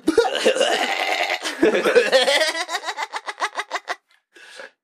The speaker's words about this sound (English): you should cough like that from now on. Turn all your coughs into that laugh.